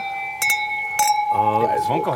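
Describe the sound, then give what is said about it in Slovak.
Wine glasses clink together twice in a toast, each bright chime leaving a sustained ringing tone that hangs on as people begin talking. “Chlapci na zdravie.”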